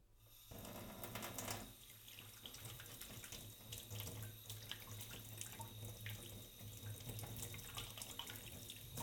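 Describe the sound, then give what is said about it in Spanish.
Very cold tap water runs steadily into a plastic tub to cover and desalt salted tripe, a continuous splashing gush with a low hollow rumble underneath, starting abruptly after a brief pause and continuing throughout without any speech. “y una vez hecho esto, con agua bien fría también la pondremos dentro de un tupper bien cubierta a desalar.”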